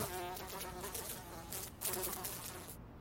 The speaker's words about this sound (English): Whoa! Was that that fly again? Uh, get up and follow the fly around the room. Swat at it. where'd it go? It's hovering above their head.